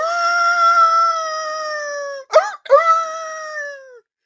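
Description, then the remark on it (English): A person imitates a wolf with a long, sustained howl that holds a steady pitch, breaks briefly in a couple of wavering yelps, then resumes and tapers off. Loud. “Now you howl like a wolf.”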